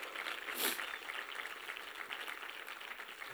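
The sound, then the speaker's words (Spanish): An audience applauds with a dense, steady patter of many hands clapping, briefly swelling early on, then holding an even, fairly soft level throughout with no voices. “Y ese hombre vino a los pies de Cristo eso merece también un aplauso.”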